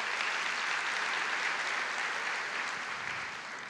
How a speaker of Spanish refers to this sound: Ah, bueno, gloria a Dios. Todos la han visto. Un aplauso al Señor porque ustedes la han visto.